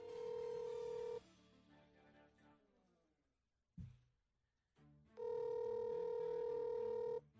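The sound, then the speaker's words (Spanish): Two long electronic phone ring tones, about a second and two seconds, separated by a pause with a brief thump, sounding slightly tinny as if played through a speaker. “Ah, tiene que estar escuchando, no va a coger.”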